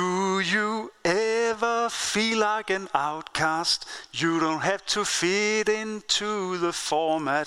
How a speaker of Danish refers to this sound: Og nu kaster jeg mig simpelthen ud i at synge den. Den lyder sådan her.